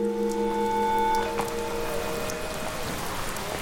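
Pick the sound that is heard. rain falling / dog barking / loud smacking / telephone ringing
rain falling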